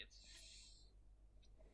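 A faint, steady hiss and low hum, then one sharp click right at the end, louder than everything before it.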